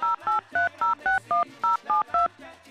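A rapid run of about ten telephone keypad dialing tones, each short beep evenly spaced in a quick steady rhythm, loud with no voices, as someone dials a phone number to reach a chef.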